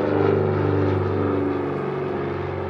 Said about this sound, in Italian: Un ATR-42 attraversa il temporale.